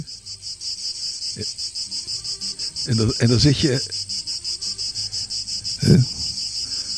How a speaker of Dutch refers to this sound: die cicades die zijn bijna oorverdovend. Je hoort ze links en rechts overal om je heen.